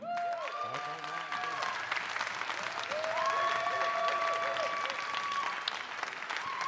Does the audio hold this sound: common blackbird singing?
no